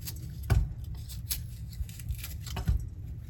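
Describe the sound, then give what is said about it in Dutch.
Broccoli being cut into small pieces: a few crisp, irregular chopping sounds with soft thuds against a board, spaced apart over low, steady background noise, with no talking. “Ik ga broccoli klein maken, want dan is hij sneller eh, gaar.”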